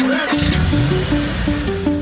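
A car engine runs loud, its pitch stepping up and down in short bursts like revving through gears, with no voices over it.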